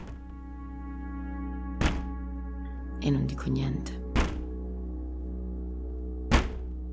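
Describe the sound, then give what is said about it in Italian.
Three hollow knocks by hand on a wooden wardrobe, slow and unevenly spaced, sharp, with a short spoken phrase between them over a steady low hum. “Io non apro l'armadio, ma inizio a bussare con una mano sul legno dell'armadio.”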